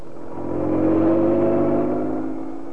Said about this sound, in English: Inspector Manson and Sergeant Wright left Scotland Yard, careening out of the gates on two wheels, and roared out of London and into Essex.